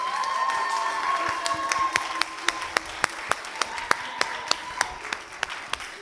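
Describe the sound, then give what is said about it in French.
Audience applause at an event for the only woman speaker after her testimony: a dense burst of clapping that thins out after a couple of seconds into a few sharp, evenly spaced claps, with a faint steady tone humming underneath. “Pour la seule femme de cet événement, est-ce qu'on peut encore applaudir s'il vous plaît”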